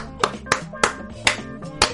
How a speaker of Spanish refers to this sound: Así que un gran aplauso a las dos personas que están con nosotros